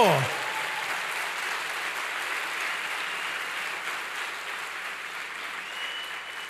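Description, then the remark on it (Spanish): A church audience applauds for the Lord during a sermon, a dense wash of clapping that stays loud and even throughout, starting right at the top after a brief falling voice fragment and easing slightly toward the end. “Dele fuerte ese aplauso al Señor.”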